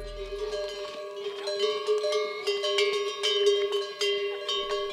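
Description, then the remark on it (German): Many neck bells on a herd of yaks clank and jingle continuously, overlapping at irregular intervals with ringing metallic tones, steady throughout, with no voices. “Oder zumindest die Glocken, die die Jacks um den Hals haben.”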